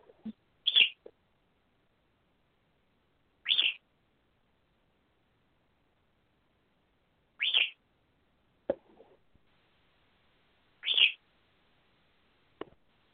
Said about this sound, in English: Bird, shush.